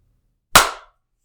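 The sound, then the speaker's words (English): One sharp hand clap with a bright, snappy attack and a short decaying tail, loud against otherwise silent surroundings, with no voices. “I'm just gonna clap.”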